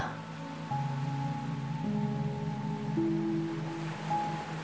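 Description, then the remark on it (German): A steady, continuous wash of big, deep-blue Atlantic Ocean waves breaking on a beach in an even rhythm and drawing back, with soft sustained musical tones humming underneath throughout. “Zelten am Atlantik - mit Meeresrauschen & Regen auf”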